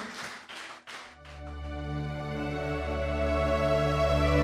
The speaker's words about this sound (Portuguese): Agora vamos aplaudir bem forte a Ele nessa noite, mas dê a tua melhor salva de palmas. Vamos aplaudir mais.